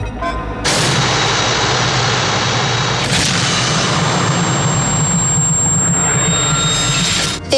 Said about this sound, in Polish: Powietrze przeszyły strzały broni maszynowej.